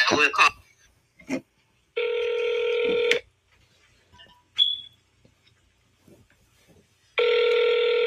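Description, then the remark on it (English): A telephone ringback tone sounds twice, each ring a steady electronic buzz about a second long with a pause between, heard over the line after brief bits of speech and a short beep. “And then we call right back.”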